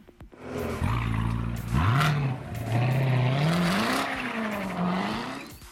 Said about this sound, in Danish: Jamen, det er en Corvette. Det er en Corvette?